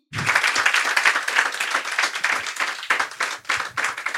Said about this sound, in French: Certaines sont d'ailleurs ici ce soir et j'aimerais qu'on les applaudisse.